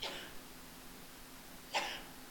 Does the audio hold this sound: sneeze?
yes